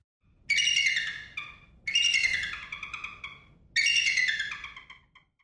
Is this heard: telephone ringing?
no